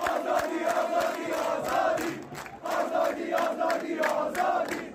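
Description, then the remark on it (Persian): A large stadium crowd of Nassaji fans in Qaem Shahr chants the name "Azadi" in unison, the rhythmic syllables repeating loudly over a continuous roar, with a brief dip in the middle before the chant resumes. “آزادی هم تشویق کردن و با مزه بود دیدی آزادی رو تشویق کرده بودن و یه سری رسانه های اونوری فکر کرده بودن دارن شعار سیاسی میدن گفتون آره تو قائم شهر دارن میگن آزادی آزادی”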